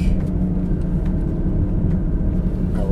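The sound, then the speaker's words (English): A deep, steady engine rumble from a school bus tailgating a car, continuous and fairly loud for about three seconds, with a faint high whine and no voices. “Is there a reason that this school bus is tailgating me?”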